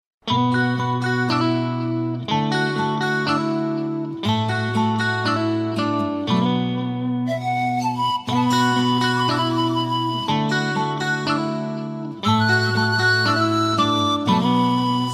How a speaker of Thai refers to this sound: สำหรับในช่วงแรกนี้เรามารับฟังเพลงเพราะๆกันก่อนสักหนึ่งผลงานเพลงครับ